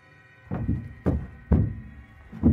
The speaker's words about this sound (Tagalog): Kahoy lang kasi ang sahig ng two-story motel ni Mr. Choi. Kaya tinig na dinig ko ang malalakas na pagbagsak ng kahoy. Mga kalabog ng mga paa mga maliliit na paang tarang tumatakbo at tumatalon-talon.